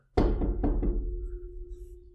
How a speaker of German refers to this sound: Wollen wir mal auf Holz klopfen.